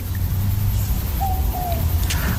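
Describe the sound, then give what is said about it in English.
A southern boobook owl, also known as a mopoke, gives a single two-note mopoke call in Australia, soft, over a steady low rumble of night-time background noise. “I hope you can hear that sound. It's a boobook owl. It's also known as a mopoke because it sort of says mopoke, mopoke, or boo book, boo book”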